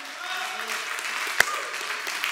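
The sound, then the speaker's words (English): A crowd clapping their hands together in worship to God, a dense, continuous patter with mingled voices and one sharper, louder clap standing out partway through. “Uh, we're clapping our hands.”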